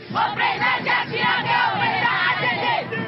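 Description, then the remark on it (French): A large crowd of thousands of residents of Timbuktu and the surrounding desert roars and cheers to welcome Jacques Chirac and Malian president Touré, a steady, dense wash of many voices, with rising shouts and ululating calls swelling repeatedly, loud and continuous throughout. “Des milliers d'habitants de Tombouctou et du désert environnant sont venus souhaiter la bienvenue à Jacques Chirac et au président malien Touré.”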